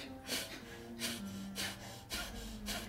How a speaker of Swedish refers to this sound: Tränar vi lite även på kapalabhati, eller den här eldandningen. Alltså andas in och andas ut, stöt ut all luft.